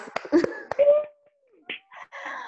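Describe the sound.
A handful of sharp, irregular hand claps ring out at the start, followed by a sliding vocal tone and short bursts of voice-like sound.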